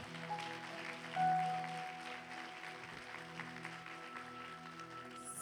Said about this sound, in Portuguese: Hoje, você pode aplaudir o Senhor?